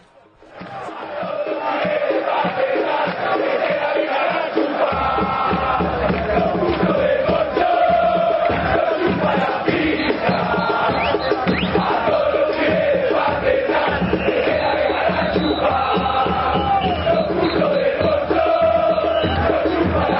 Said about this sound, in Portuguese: o pessoal do, do Rentistas desceu lá para o bairro para dar uma força para os amigos, e daí cantaram juntos contra o Clube Nacional de Futebol. E é isso que a gente vai ouvir agora.